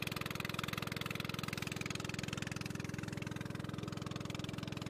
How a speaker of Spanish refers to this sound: Conduciendo esta lancha.